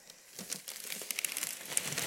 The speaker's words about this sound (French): Maintenant, on va donc la décoller entre nos deux feuilles de papier sulfurisé. Donc je vous propose pour ça, il y a une technique. Vous tirez la feuille de papier à plat, c'est-à-dire vraiment à plat, c'est-à-dire vous, vous touchez la pâte.